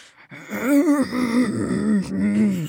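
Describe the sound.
A voice imitates drawn-out, animal-like labor groans: low, strained moaning that wavers in pitch, rising and sagging through a few sustained pushes with brief breathy catches between them.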